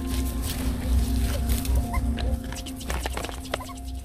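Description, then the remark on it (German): Abandoned puppies at the edge of a rubbish dump, filmed on a mobile phone, squeak and whimper in short scattered bursts over a steady outdoor rumble, with occasional rustles and clicks; no one speaks. “Am Rande einer Müllkippe findet er diese Hundewelpen.”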